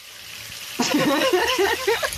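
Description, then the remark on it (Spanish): After a quiet moment, water suddenly bursts out of a leak in a ship's cabin and keeps gushing with a steady, bubbling rush, fairly loud, with no voices. “Hay fugas. No para de salir agua, por Dios.”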